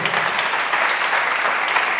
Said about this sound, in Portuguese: Tem alguém para dar uma aplauso a Jesus aí?